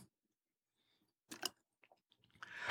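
Someone takes a small sip of room-temperature water from a small bottle to clear their voice: a quiet slurp, a few faint wet mouth clicks, then a longer soft gulping sound, with no talking.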